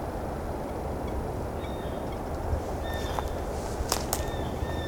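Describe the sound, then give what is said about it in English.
A few faint, thin squeaking calls from a lone red-breasted nuthatch come and go over a steady wash of outdoor background noise, with a couple of sharp clicks near the end. “Could be a red breast nuthatch.”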